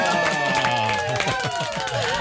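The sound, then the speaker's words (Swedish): A brief burst of applause in a morning show's studio, a few people clapping steadily, with voices chattering and calling out over the clapping for a couple of seconds. “Det är väl värt en liten morgonshowsapplåd.”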